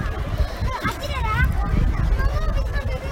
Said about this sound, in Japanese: どうですかこの周りの音聞こえますかすごいざわざわとした人の賑わいと水の音が聞こえるかもしれませんアンデルセン公園の水の広場ってちょっとした遊具水で水の中で遊べる遊具があるんですよね